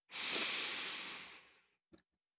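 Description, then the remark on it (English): A long, airy deep breath in, lasting under two seconds and ending with a couple of soft, quick clicks of breath or mouth noise. “And as you think of that thing, we're going to take a deep breath in and out, holding on to that reflection.”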